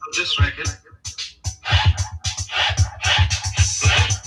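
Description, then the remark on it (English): A chopped-up record sample plays at a slowed, halftime feel, with steady deep thumps under stuttering vocal fragments and bright bursts, loud, cutting in and out rhythmically. “when you hear the sample, you'll be like, oh, I've cut oh, to uh, that before.”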